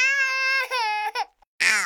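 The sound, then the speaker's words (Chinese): High-pitched wailing of frightened babies in a sustained cry that breaks briefly, falls silent, then resumes loudly with a second burst of sobbing. No talking is heard. “哎，他们被吓哭了。”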